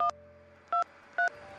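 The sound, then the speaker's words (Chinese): Telephone dialing: three short, bright two-tone keypad beeps pressed at an uneven pace, each lasting about a tenth of a second, with a faint hum underneath and no voices. “说完，他还嘿嘿冲我乐了一下，然后掏出电话打了一通。”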